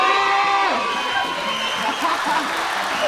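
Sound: audience applause and cheering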